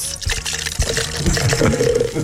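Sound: liquid poured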